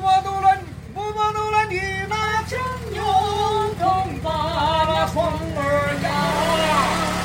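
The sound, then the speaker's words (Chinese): A motorcycle engine rumbles steadily underneath, with a louder, noisier rise near the end, while a voice sings or calls out in shifting tones over the top. “等一下，他的摩托车，等一下我录音啊”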